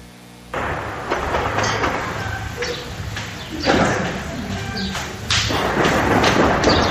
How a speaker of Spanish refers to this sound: Pero vamos a escuchar un poquito de cómo se registró este intercambio de balazos en Rincón de Tamayo, allá en Celaya.